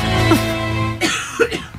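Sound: a person coughing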